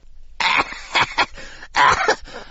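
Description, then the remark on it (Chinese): A fit of harsh, raspy coughing from a character who choked on poison juice he had just drunk: five or six loud bursts in an uneven run, one longer and more strained near the end, with no talking. “光头鱼咳嗽了半天，总算缓过了劲儿。”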